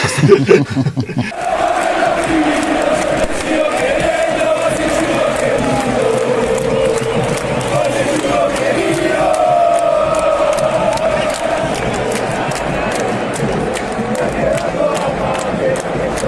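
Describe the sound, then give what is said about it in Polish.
A huge stadium crowd chants in unison, a loud, dense wall of voices carrying a steady sung tune that holds without pause for the whole stretch. “Tutaj było podobnie, w zasadzie cały stadion uczestniczył w oprawie, no bo wszyscy trzymali te ich y, trzy kolory, czerwony, biały, niebieski.”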